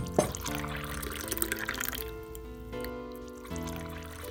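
Whisky glugs and trickles into glasses for everyone, clear, with a faint clink at the start and a ringing pitch that shifts as each glass fills in turn; no one speaks.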